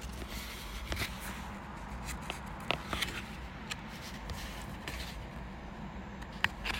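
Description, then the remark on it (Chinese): Quiet, soft rustling and a few light papery swishes and ticks as a page of a Hansel and Gretel storybook is turned, over a steady low hum with no one speaking. “大家等待一下，老客翻页。”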